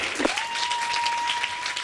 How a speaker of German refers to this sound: Ist leider, das ist jetzt leider in dem tosenden Applaus untergegangen.